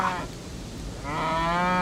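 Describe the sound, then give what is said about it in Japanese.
A cow being led by a young man moos twice, a short low call followed by a longer, louder drawn-out moo, clear with no talking. “向こうから牛を連れた青年が来ますよ”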